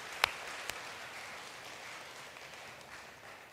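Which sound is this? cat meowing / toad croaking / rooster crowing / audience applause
audience applause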